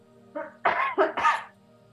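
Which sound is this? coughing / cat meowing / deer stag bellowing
coughing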